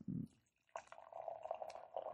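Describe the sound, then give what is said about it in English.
A 2018 vintage sour beer pours steadily into a glass, a continuous gurgling splash with a faint rising pitch as it fills, following a brief low thump at the start. “as you can hear a nice little pour going on there.”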